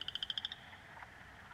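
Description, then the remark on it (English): A frog gives a quick, rapid series of about eight high, pulsing croaks, then falls quiet, with fainter croaking from other frogs in the background; mating frogs in spring, around April and May, about a kilometer's walk from a house. “What you're hearing now is the sound of frogs in the springtime around April and May who live about a kilometer's walk from our house in the summertime.”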